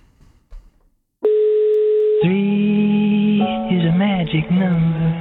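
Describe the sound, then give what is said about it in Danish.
A telephone line rings out on an outgoing call with one steady, loud ringback tone lasting about a second, followed immediately by a voice talking over the line. “Ja, nu ringer vi op.”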